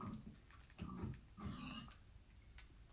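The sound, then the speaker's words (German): A video game pig oinks and grunts in a few short, nasal, clear bursts, with a low rumbly background between the calls. “Komm her, Schweinchen.”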